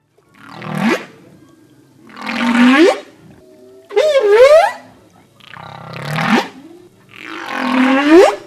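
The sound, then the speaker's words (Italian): Humpback whale mothers calling to their calves in the ocean off Turks and Caicos, five long moaning and rising cries in a slow sequence, some with sweeping upward whoops, fairly loud against a quiet underwater background. “Facciamo ora un viaggio nei mari oceanici di Turks and Caicos alla ricerca delle balene, ad ascoltare il suono delle balene mamma nei confronti dei loro piccoli.”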